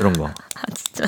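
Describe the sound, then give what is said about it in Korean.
Several quick, sharp clicks of a ballpoint pen, pressed repeatedly out of habit in an office, sound in an irregular burst, mixed in with a person's short spoken remarks. “저는 사무실에서 볼펜 자꾸 누르는 습관이 있어요.”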